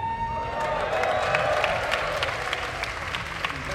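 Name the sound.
crowd applauding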